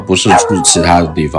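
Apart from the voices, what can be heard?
dog barking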